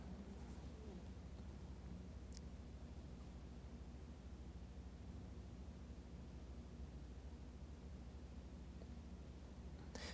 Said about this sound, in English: I hear the rain.